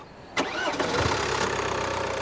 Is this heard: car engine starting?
yes